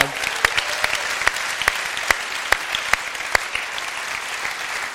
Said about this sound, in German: Können wir nicht mal einen Applaus geben dafür?